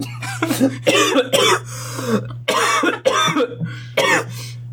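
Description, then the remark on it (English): A person coughs hard and repeatedly after choking on coffee while trying to slurp it, in five or six loud, raspy bursts with short gasping pauses between them, over a steady low electrical hum. “I tried to slurp so that I could do a You May Be Wondering Why I'm Slurping, which is only funny to me. And then I just choked.”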